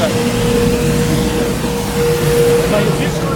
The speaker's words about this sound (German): Das ist jetzt einfach nur ein Müllauto.